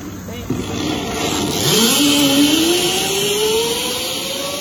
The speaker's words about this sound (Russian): скользит по воздуху, пристегнутая карабином, по такому зиплайну. И это она так проводит каникулы, прошлым летом в Пенсильвании, в США.